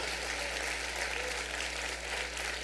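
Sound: audience applauding louder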